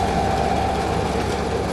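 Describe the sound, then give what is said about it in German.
An old, green-lacquered horsehair teasing machine runs steadily, plucking and combing apart strands of horsehair, with a dense, continuous mechanical drone and a steady hum, its low rumble and whirring holding an even level throughout without pause. “Genau, die Maschine zupft jetzt das Roster auf, kämmt es auf.”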